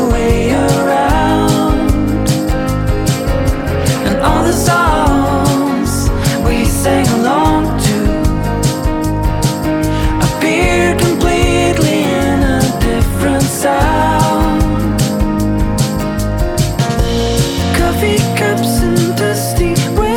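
A full band song plays loudly and steadily throughout, with driving drums, dense guitars and bass, and a sung vocal line woven into the mix.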